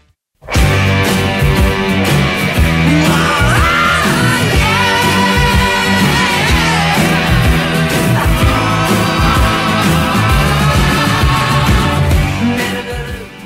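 A glam rock single released in 1972 plays loudly and continuously, with a pounding steady drumbeat, dense electric guitars and soaring sung vocals. It starts abruptly and runs without pause or talk.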